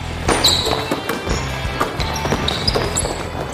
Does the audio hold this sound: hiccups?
no